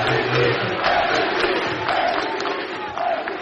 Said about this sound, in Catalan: ah, falta a favor del Manresa i el públic la celebra així un to irònic amb crit MVP a l'àrbitre